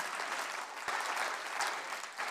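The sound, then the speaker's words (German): A steady burst of applause from a crowd, dense and even clapping that holds at a fairly loud level throughout with no voices on top. “Komm, lass uns diesen Applaus geben.”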